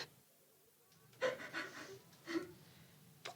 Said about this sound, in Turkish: Duyuyor musun ağlıyor. Yine bir şey yapıyor olmasın. Koş bir bakalım neden ağlıyor.